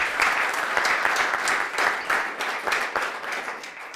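Steady audience applause thanking the organizer of a seminar programme, many hands clapping in a dense, crackling wash that stays fairly loud throughout and tapers slightly toward the end, with no voices standing out.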